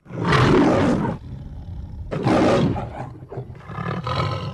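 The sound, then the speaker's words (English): The MGM logo lion roars loudly at the opening of a film teaser trailer, two big rasping bursts about a second apart, followed by lower growling rumbles that trail off. No one speaks. “It opens up with the MGM lion roaring, and the Crocodile Hunter walks out over the logo, and that's it for the teaser.”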